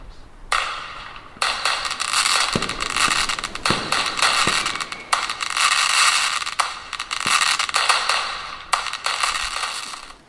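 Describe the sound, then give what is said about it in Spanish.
Dense, continuous crackling of firecrackers and fireworks at a night-time fireworks competition watched from a beach, a rapid barrage of sharp pops and bursts lasting several seconds with brief pauses, loud, with no voices. “Y qué maravilla estar sentada tumbado en la playa, mirar hacia el cielo nocturno y dejándose impactar por esta belleza de luces y petardos.”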